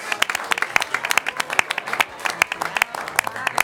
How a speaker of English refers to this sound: Let's give them one more round of applause.